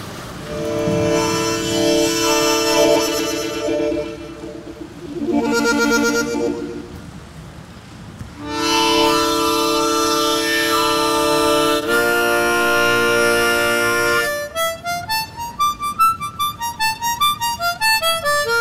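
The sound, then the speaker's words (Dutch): A harmonica plays sustained, reedy chords in three long breaths with short pauses between, then finishes with quick, bouncing runs of rising and falling notes. No one speaks. “Als ik geen mondharmonica bij heb, is het nog erger dan geen telefoon bij hebben.”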